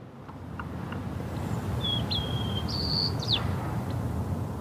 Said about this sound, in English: And that sounds like a maybe juvenile white crowned sparrow in the background practicing a song.